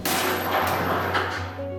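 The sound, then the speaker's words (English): A light gas gun at a planetary science research facility fires a projectile at almost 15,000 miles an hour with a sudden loud blast, followed by a sustained roaring hiss over a steady low mechanical hum, with a couple of fainter knocks as the noise continues. “We have two light gas guns, or cannons, and with these cannons we fire projectiles at almost 15,000 miles an hour.”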